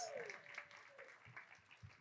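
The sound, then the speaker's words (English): A round of applause: dense, crackling clapping that holds at a fairly even level for about two seconds, with a brief gliding tone at the very start. “Look at give a big round of applause.”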